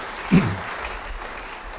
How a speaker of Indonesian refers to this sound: Yang mau menerima beri tepuk tangan sekali lagi bagi